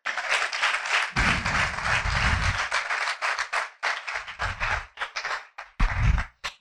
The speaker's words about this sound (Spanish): ¿Será que usted le puede dar un aplauso al Señor?